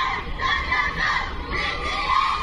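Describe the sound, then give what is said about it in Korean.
A dense crowd of fans from many countries, gathered on Pennsylvania Avenue by the White House, shouts and cheers continuously, a loud, sustained roar of many overlapping high-pitched voices without pause. “같은 시간 백악관 본관과 가장 가까운 펜실베니아 에비뉴엔 세계 각국의 팬들이 모여들어 인산인해를 이뤘습니다.”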